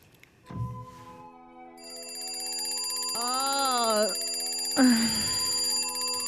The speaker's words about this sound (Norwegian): Det er tidlig en morgen, og jeg våkner opp av den jævlige drittklokka som vet å forstyrre meg akkurat når det passer meg minst. Jeg er nemlig midt i en drøm. Jeg slår av vekkerklokka halvveis i søvne og forsvinner på ny inn i drømmeverden.